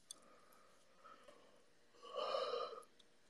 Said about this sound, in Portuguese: Ai, gente, foi mal, dei um bocejo. A pessoa que não dormiu, é.